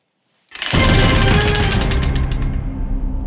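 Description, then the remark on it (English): A prize wheel whirs into a fast spin after a moment of silence, its pointer rattling off a rapid stream of loud clicks that carry on steadily to the end. “Spin it. Just spin it. We're loving this wheel.”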